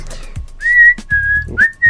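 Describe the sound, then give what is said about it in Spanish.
Someone whistles a short tune, as done while redubbing a film: a few clear sustained notes with brief gaps and slight pitch rises between them, fairly loud and with no talking. “Cuando hicimos el redoblaje, pues yo me puse a silbar.”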